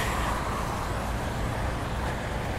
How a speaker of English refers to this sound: before that truck runs over me and then go to the right.